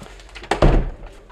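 A door opens with a solid wooden clunk and a short rattle of the latch, followed by faint sounds as someone steps inside through the kitchen way of Stormskär's conference and inn, Östergårds.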